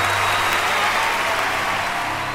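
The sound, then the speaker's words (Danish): Sustained applause from a large crowd at the Oscars, as Hilary Swank wins Best Actress for Million Dollar Baby: a dense, steady wash of many hands clapping at once, loud and continuous throughout with no voices standing out. “Men da det blev tid til Oscars, var det kun klapsalver, der lød.”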